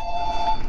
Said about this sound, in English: And I apologize for my phone ringing.